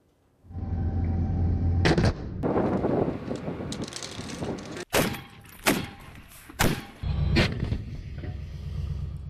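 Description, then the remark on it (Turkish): Domestically produced Fırtına howitzers firing at targets: several loud, sharp booming blasts at irregular intervals over a steady low rumble and wind-like noise, with no voices. “Yerli üretim fırtına obüsleri, Korkut hava savunma sistemleri, milli piyade tüfeği, orta menzilli tank savar silah sistemi ve kargo kamikaze İHA'ları hedefleri tam isabetle vurdu.”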